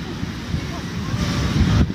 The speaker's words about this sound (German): Jetzt stehen wir genau daneben. Also Niagara-Fälle, du hast es dir schon gedacht. Genau an der Stelle, wo das Wasser in diesem Schlund runterfließt. Fällt. Wahnsinn. Wahnsinn. Ein, sieht aus jetzt von hier wie ein riesiges Loch, so ein Halbkreis